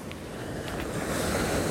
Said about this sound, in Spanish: En el mar, con los sonidos de las olas y todo eso.